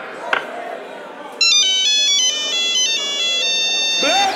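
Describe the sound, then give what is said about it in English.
A mobile phone ringtone kicks in after a quiet start, a bright electronic melody of high, stepped beeping tones that plays loudly and steadily until the end. “Who's on the celly?”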